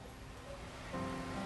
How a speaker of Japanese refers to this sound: その日の雨はなんだか違って見えた雨粒がくっきりと鮮明で路面を叩く音に濁音がなかった